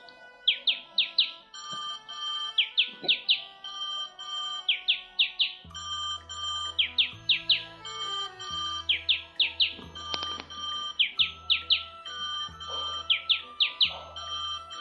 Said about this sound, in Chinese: 早上六点，闹钟准时响了起来。